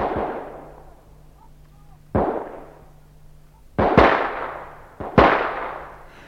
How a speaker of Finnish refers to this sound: Vaikka tällaisella pilkkopimeässä ammuskelulla on pelkkä moraalinen vaikutus.